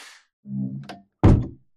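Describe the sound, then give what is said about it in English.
The door to a captain's office swings shut behind him with a creaking, rumbling sweep followed by a loud, solid thunk as it closes, with no voices. “And uh, it's the sound of the door closing behind him that I think jolts him out of looking internally.”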